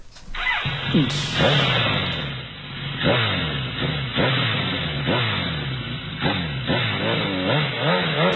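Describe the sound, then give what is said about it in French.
A high-revving Japanese GSX-R sport motorcycle engine, loud, climbing through repeated throttle blips and gear changes in a steady rhythm, with a constant mechanical drone underneath and no voices. “Euh, une japonaise, hein, je pense. Bien. Euh, je je sais pas, peut-être un GSX-R.”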